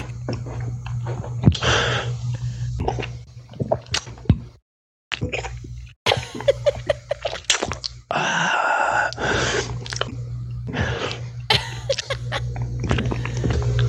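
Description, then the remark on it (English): Wet gulping and sharp, breathy gasps from a man off camera come in irregular bursts, loud, with a moaning, wailing quality and a steady low hum underneath. No one speaks. “Gulps and gasps are made in Florida. Oh, he's gulping off camera.”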